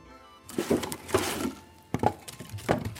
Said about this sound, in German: kramt Holzscheite aus der eisernen Schublade unter dem Holzofen in der Küche, legt oben in der Brennkammer des Ofens nach. Bald knistert's und knackt's.